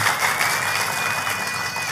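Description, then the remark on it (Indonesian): An audience applauds for God during a church sermon, steadily throughout, a dense, bright wash of many hands clapping at once with no pauses, and a faint sustained tone ringing faintly above the noise. “Tepuk tangannya pula yang paling meriah buat Tuhan”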